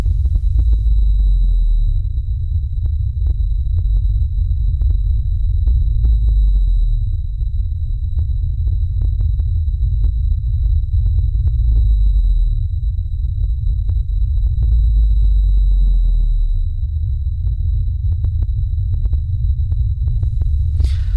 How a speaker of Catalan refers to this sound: Costa, costa d'escoltar aquesta freqüència tan baixa de la balena blava. El seu cant és suau i melòdic, amb notes agudes i seqüències complexes. Aquests cants poden ser escoltats a centenars de quilòmetres de distància.